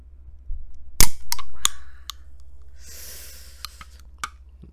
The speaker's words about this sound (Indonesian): Sebelum memulai, ini gue udah ada sekaleng Red Bull. Mari kita mendengar bagaimana sih suara kaleng Red Bull ketika dibuka dan apa sih isinya?